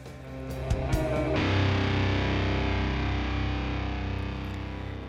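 A loud, heavily distorted music track kicks in after a brief choppy intro, with dense fuzzy guitars and a steady driving rhythm filling the whole clip, no voices.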